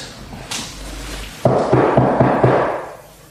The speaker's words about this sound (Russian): Прошу вас, постучите, Отсон.